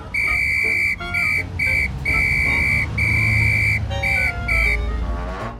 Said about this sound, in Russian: И вот впереди всех бегут мальчишки, за ними взрослые, а позади бежит милиционер и дует в свой свисток.